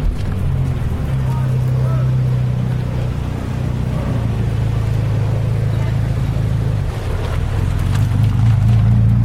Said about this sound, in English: Oh no, there's an F40 that's grounded out coming off a ramp. Here it comes, the F40. Listen.